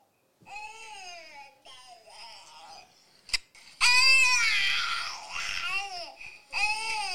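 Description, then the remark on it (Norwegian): A baby girl's high-pitched vocalizations, babbling that rises into loud, strained shrieks which could be either squealing laughter or crying, heard in several bursts. “Er det skriking eller fliring?”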